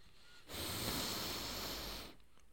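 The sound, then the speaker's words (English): A person takes one long, steady sniff of a book, a breathy hiss lasting about a second and a half, with quiet before and after. “I'm gonna sniff um, "Faking Miss Right" by Claire Kingsley”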